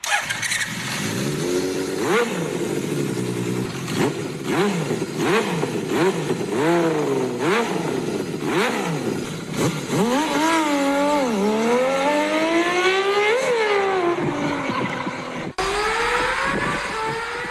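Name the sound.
six-cylinder motorcycle engine revving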